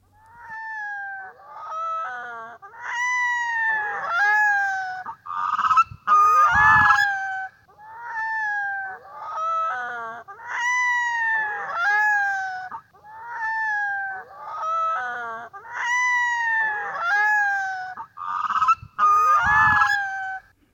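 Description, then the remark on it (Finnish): A brood of large waterbirds at Metsälampi, a forest pond, calls repeatedly and close by, about ten metres away, recorded on a phone. Loud honking and trumpeting notes overlap in a steady, continuous chorus with no echo and no talking. “video poikueesta Metsälammella ja siinä on sellainen 20 sekuntia tosi tiukkaa tavaraa, joka nyt sitten kuunnellaan.”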